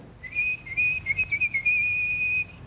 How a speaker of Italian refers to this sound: lei ha trovato lavoro come una specie di badante dell'epoca, aiuto sarta, cameriere, eccetera, da Ugo Tognazzi, che è un sarto bravissimo ma sordomuto, che quindi parla fischiando e a gesti.